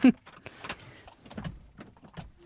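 A door being opened nearby: a quick series of sharp clicks and clunks from the latch and handle, followed by soft rustling and a few lighter knocks.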